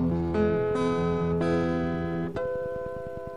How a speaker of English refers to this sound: Beautiful. And we'll just leave it hanging on the uh, harmonic there.